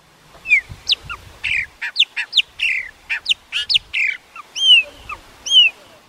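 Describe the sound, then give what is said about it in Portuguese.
A chopi blackbird (pássaro-preto), a bird measuring 21 to 25 centimetres, sings a rich, varied song of clear whistles, sweeping slurs and bubbly phrases, delivered in rapid bursts with brief pauses, loud with no talking. “Série Cantos - Pássaro-preto”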